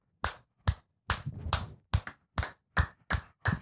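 Loud hand claps made with the fingers spread, about ten sharp bright smacks in an uneven rhythm, some coming in quick pairs, with no talking.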